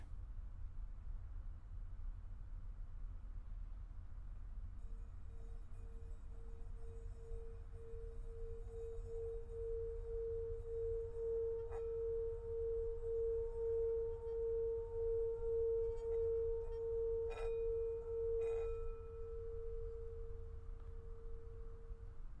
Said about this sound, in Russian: Сейчас раздастся звук гонга.